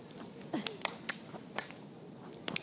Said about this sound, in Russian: Упали, отжались, полностью, полностью ложимся. Грудью, грудью ложимся. На скорость не делаем, делаем на технику. Я вас прошу, делаем на технику. Ноги под себя и прыжок с хлопком над головой.